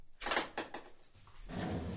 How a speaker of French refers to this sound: Alors, euh, euh, on a ouvert le four, euh, qui est un four d'émail, euh, de basse température